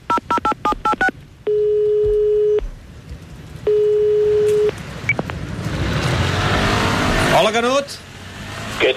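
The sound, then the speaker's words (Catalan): A quick burst of keypad dialing beeps, then two long, steady telephone ringing tones with a pause between, followed by rushing traffic-like noise. “Passa'm el telèfon, que truco un canut.”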